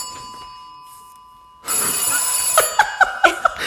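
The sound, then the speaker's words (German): A home telephone rings loudly, a bright electronic trill that starts abruptly after a quiet moment and pulses in quick repeated bursts, with no one speaking. “Jetzt oh klingelt oh hier Gott, das, das Telefon.”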